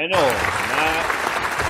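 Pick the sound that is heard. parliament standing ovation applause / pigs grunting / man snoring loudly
parliament standing ovation applause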